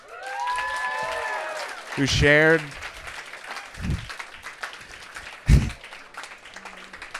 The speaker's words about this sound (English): Um, but thank you. uh, but can we get a big round of applause for everyone